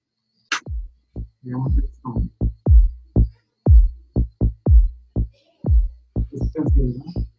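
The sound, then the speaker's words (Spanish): A loud run of deep, thudding pulses with short falling tones at 60 BPM, one pulse per second, coming quickly in an uneven rhythm, alone with no talking. “Pusiste 60 BPM, que es un, pulso por segundo, ¿no?”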